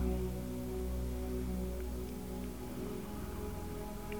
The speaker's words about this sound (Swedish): Och märker du att du tappar fokus på regnet och drömmer dig iväg, tänker på annat när du märker att det har hänt så går du tillbaka till ljudet av regnet och andetaget.